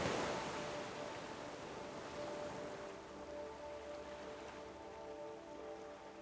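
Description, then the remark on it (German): Gentle sea waves lap and wash softly in a steady, hushed murmur with slight swells, accompanied by faint sustained tones in the background; no one speaks. “Und sein träge Schwappen flüstert leise in deinen Ohren.”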